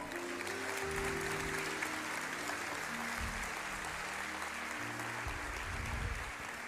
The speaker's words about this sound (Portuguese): Ah, dê um aplauso ao Senhor aí.